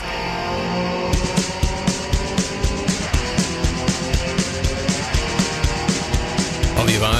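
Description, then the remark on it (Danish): A Volvo B18 car engine runs steadily at a Volvo meet near Fredericia, its low rumble broken by a regular, rhythmic pulsing knock, with the revs rising slightly near the end; no one speaks. “Ja, men vi kommer jo næsten ikke udenom, at øh, vi skal jo høre den her Volvo B18.”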